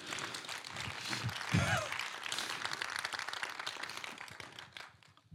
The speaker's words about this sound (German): Ein Applaus für